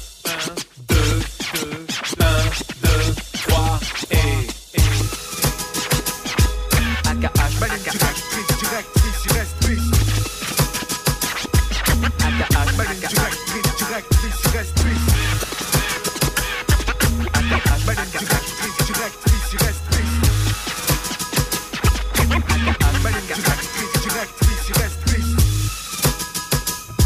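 A French rap track: a hip-hop beat with heavy, punchy bass drums and turntable scratching, rhythmic and loud throughout, with scratches most prominent in the opening seconds.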